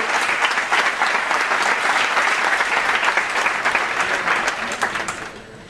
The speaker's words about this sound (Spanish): Pido un fuerte aplauso